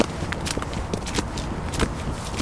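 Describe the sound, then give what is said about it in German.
Footsteps of several people walking past, a steady run of soft, irregular taps and scuffs over a constant low rumble, with no voices. “man hört Leute vorbeilaufen.”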